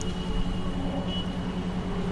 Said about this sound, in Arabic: أقف في قلب واحدة من أكثر مناطق القاهرة جلبة وازدحاما أصوات متضاربة تملأ المكان وصخب ميدان رمسيس يستحوذ على انتباهي ويفقدني صوابي وسط زحمة السير وتدفقها العشوائي